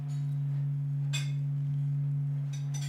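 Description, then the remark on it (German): Sonified oscillations of the sun, recorded by NASA scientists: the whole sun vibrates as it produces light, and these vibrations are turned into audible sound. A steady, low droning hum holds unchanged throughout, with a couple of brief, faint hissing swells rising over it. No one speaks. “Die Sonne schwingt als Gesamtes beim Licht erzeugen und dieses Schwingen kann man umsetzen in hörbare Klänge.”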